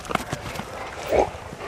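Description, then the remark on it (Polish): A dog plays with a fetch toy: a few light taps and scuffles, then a short, squeaky tonal burst midway through. No one speaks. “Super pies podczas zabawy to pies nie puści swojej zabawki, tylko wtedy po prostu kolega musi mu poluzować i wydać odpowiednią komendę, na przykład puść, wtedy powinien oddać piłeczkę.”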